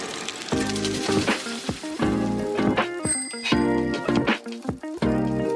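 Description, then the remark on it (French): Bright metallic bells ring repeatedly in uneven bursts over a busy, hissing street background, with sharp clanging strikes recurring every second or so, loud, in Oudenaarde, Flanders, on cobbled streets full of cyclists at the Tour of Flanders. “Il y a des cyclistes partout, les cloches résonnent, il y a des pavés, je suis bien en Flandre.”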